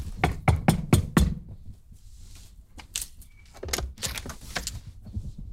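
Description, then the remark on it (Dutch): A quick burst of five firm knocks on the door of a home in Apeldoorn whose doorbell seems broken, loud, followed by a short lull and then a few scattered, lighter knocks and taps. No one speaks. “Wacht, ik klop wel even aan.”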